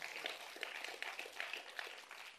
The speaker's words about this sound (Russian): Давайте Богу дадим громкие аплодисменты.